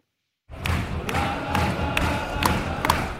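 A football crowd chanting at a Watford versus Arsenal match in Watford: a dense roar of many voices with sharp, evenly spaced accents, roughly two per second, like claps keeping the beat, starting suddenly after a moment of silence.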